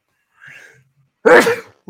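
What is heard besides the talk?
sneeze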